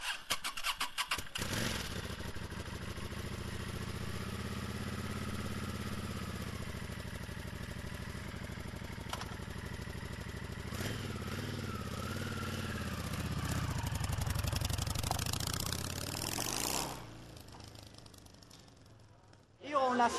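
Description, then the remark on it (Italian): The engine of a white Meadow 600 motorcycle sputters to life and settles into a steady, rumbling idle with a few revs swelling near the end before cutting off; voices seem to murmur faintly underneath. “Meadow 600, bianca, molto rara nell'ambiente visto che sono tutte nere di solito, è la mia prima moto, non la cambierò mai, la terrò sempre finché va, poverina.”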